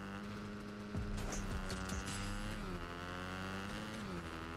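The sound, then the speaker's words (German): A steady, droning engine hums continuously with layered harmonic tones, briefly rising and shifting pitch as it revs, like a motorcycle being ridden in a video game, cruising on a country road. “Komm, wir holen uns hier beide ein Motorrad.”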